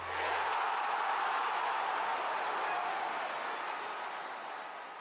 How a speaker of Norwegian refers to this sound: En liten applaus.